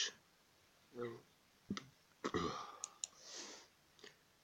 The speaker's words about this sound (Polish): Jeśli słyszeli, słyszeliście kolejny, kolejny mój bek, to sorry, nic nie poradzę. Nic nie poradzę.